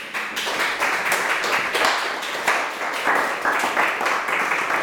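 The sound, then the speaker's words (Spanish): An audience applauds together in honour of Christ, a dense, steady wash of many hands clapping at a fairly loud, even level for several seconds, with no voices standing out. “Bueno, démosle un aplauso a Cristo.”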